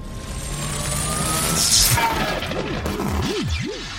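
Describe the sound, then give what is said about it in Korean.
An electric discharger powers up while an artificial-intelligence raccoon robot is prepared for dismantling: steady harsh crackling noise, a bright zap midway, then a low electronic warble that repeatedly swoops up and down. No one speaks. “방전기가 작동하는 소리와 함께 제타를 바라보고 있던 너구리의 눈빛이 황망히 갈 길을 잃었다.”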